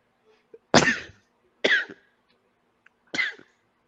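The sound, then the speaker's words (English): Three sharp, explosive sneezes in quick succession, fairly loud, the second following the first after a short pause and the third after a longer gap, with no talking. “Bless you.”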